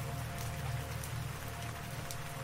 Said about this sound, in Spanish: Recuerdo aquella mañana lluviosa en el cementerio. Era una tormenta de aquellas, el agua la tiraban con balde desde el cielo, como se dice.